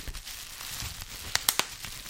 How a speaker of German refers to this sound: ich mach noch hier schön äh, mm. Lagerfeuer